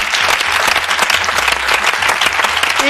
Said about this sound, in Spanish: Un aplauso para nuestra jueza. ¡Bravo!